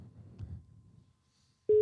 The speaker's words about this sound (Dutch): Ga je bellen? Ja. Eh, ik, kan in de, ik ga even bellen naar over... Naar de toekomst. Naar de toekomst even bellen. Wacht even hoor. Kijk, dan moet ik even... Ja. wacht even, ik ga even de telefoon. Zo kijken of ze opnemen ja, in de toekomst.